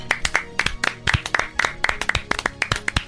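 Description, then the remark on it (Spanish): Applause from a small group, with sharp, irregular hand claps overlapping in a steady patter for a few seconds, fairly loud and with no voices. “Venga el aplauso. Bravo.”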